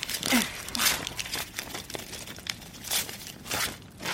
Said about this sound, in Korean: 종이 찢는 소리가 귀에 거슬렸다. 구깃구깃해진 책장이 아궁이로 들어갔다. 아궁이 속으로 들어간 찢어진 종이에서 작은 벌레가 날개를 비비는 것 같은 소리가 났다.